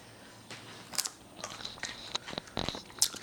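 A crisp bite into a raw, sweet, ivory-colored vegetable cut into wedges, with a texture like an apple, followed by several sharp crunches of chewing, irregular and fairly quiet, with no voices.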